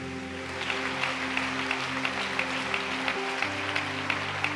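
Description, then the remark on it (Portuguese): A church audience claps loudly for Jesus, steady crackling applause sustained throughout, over held low keyboard chords that shift pitch partway through. No one speaks. “Vamos dar uma salva de palmas bem alto a Jesus, então.”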